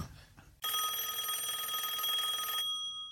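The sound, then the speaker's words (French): A phone ringtone sounds once in a single steady, bright electronic burst lasting about two seconds, then cuts off abruptly, preceded by a brief low murmur of background noise. “Ah, c'est une sonnerie timide.”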